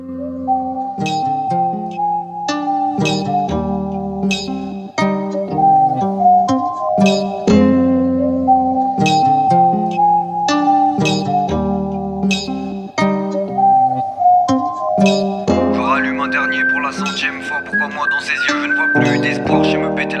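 A rap song plays loud and close, rhythmic vocals riding over a melodic beat with steady bass, and the backing grows denser and brighter in the final few seconds.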